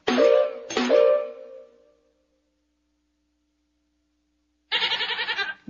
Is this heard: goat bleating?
yes